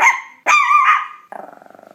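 A dog gives two loud barks, the second drawn out and whiny, then breaks into a low, rattling growl that pulses rapidly to the end. No one speaks.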